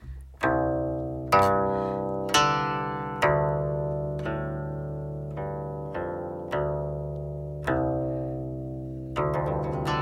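Open strings of a guqin, a Chinese zither, plucked one after another to give the 'sound of earth', about nine deep, resonant notes at a slow, unhurried pace, each ringing on and fading gradually, with no voices.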